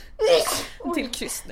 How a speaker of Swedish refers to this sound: Oj, prosit gumman. Vänta, jag tror det kommer till.